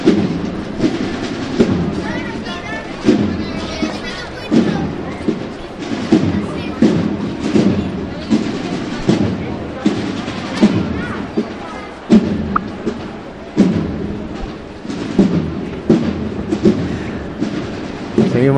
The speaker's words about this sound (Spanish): escuchando esos sones a tambor.